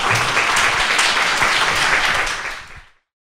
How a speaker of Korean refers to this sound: 박수, 큰 박수를 드리는 것으로 가름하도록 하겠습니다.